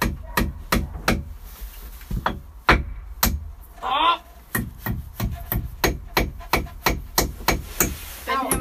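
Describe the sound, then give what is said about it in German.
An old rusty hammer drives a new nail into wood with about twenty sharp, loud blows in a steady rhythm, broken once midway by a short pause and a brief scraping sound. “Mit dem alten verrosteten Hammer muss ich jetzt einen neuen reinhauen.”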